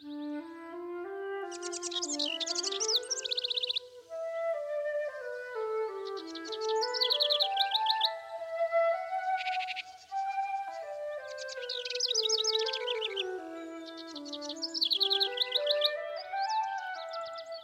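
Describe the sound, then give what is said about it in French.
Bright bursts of bird chirps and trills recur throughout, layered over a steady, gliding tonal melody that rises and falls continuously beneath them. “la beauté des chants des oiseaux.”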